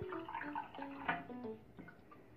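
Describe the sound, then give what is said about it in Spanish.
Water trickles and drips onto a paper napkin being moistened to make a seed germinator, with soft, uneven gurgling splashes throughout the short moment, fairly quiet and with no one speaking. “Entonces, eh, lo único que hay que hacer, yo diría, porque en realidad es algo sumamente sencillo, es humedecer el papel servilleta”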